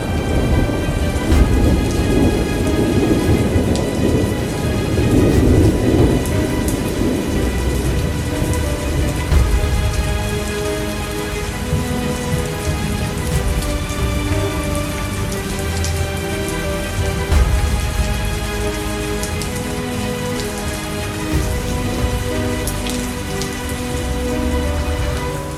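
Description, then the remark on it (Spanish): A thunderstorm with heavy rain pouring steadily throughout and deep rumbles of thunder rolling in, loudest early on. No voices, just the dense, continuous wash of rain. “hasta que un día estalló una tormenta, una terrible tormenta.”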